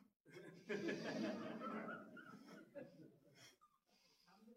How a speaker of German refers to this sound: Dieser elendige Husten, der geht nicht weg.